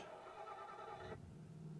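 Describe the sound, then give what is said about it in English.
A car engine starting in a video game: a bright, droning whir cuts off after about a second and settles into a low, steady idle rumble. No one speaks. “Oh, I start the car. I did hear the car start.”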